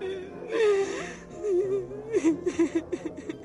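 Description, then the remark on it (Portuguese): A woman cries, starting with a shaky, breathy gasp and a wavering whimper, then breaking into quick, rhythmic sobbing hiccups that pulse steadily to the end. “Então a Rita ela começa a se acalmar e cai num choro.”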